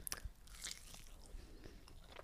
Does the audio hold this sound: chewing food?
yes